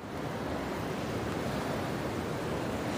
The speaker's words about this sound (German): Die Stimmung ist besonders an dem Morgen. Das Meer rauscht, die Sonne ist noch hinter den Wolken versteckt. Das Meer leuchtet türkis. Wir laufen barfuß am Meer entlang.